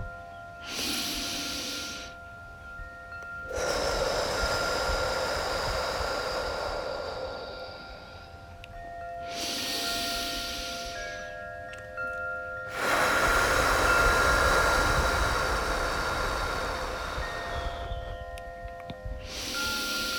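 Deep, slow abdominal breathing, drawing the air deep down into the belly on each inhale: two full cycles, each a shorter inhale followed by a long, airy exhale, with a faint steady tone humming in the background and no talking.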